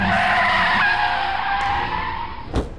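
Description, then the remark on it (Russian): A car brakes hard on an asphalt road after striking a person, its tires letting out a loud, sustained screech of skidding that fades slightly before ending in a brief sharp thud. No voices are heard. “Автомобиль затормозил, выскочили люди.”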